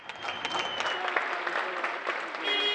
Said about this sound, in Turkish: Türkiye ikinci günde de aynı saatte balkonlarda pencerelerdeydi. Milyonlar sağlık çalışanlarına alkışlarla teşekkür etti.